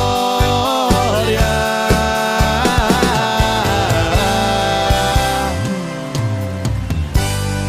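A live sertanejo song plays loud and full, with layered sustained melody over a steady rhythmic pulse of bass and percussion, and no talking over it.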